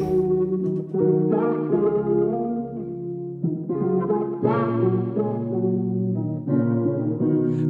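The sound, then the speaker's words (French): A smooth R&B instrumental intro with warm, effect-laden keyboard chords and a steady low bass, playing continuously at a moderate, even volume with no vocals yet. “Il flirte avec un style musical plus RB qui sied parfaitement à son phrasé.”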